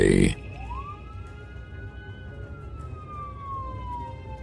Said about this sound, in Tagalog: Dahil po doon ay mabilis na kumilos ang ambulansya at agad nang pinuntahan ang katawan ni